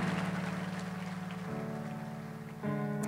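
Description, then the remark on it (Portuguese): Steady, dense applause from a crowd, given for Jesus Christ, fills the whole clip, a continuous crackling wash, while sustained keyboard chords ring underneath and shift twice. No one speaks. “Dê uma salva de palmas bem forte a Jesus Cristo aí, amém.”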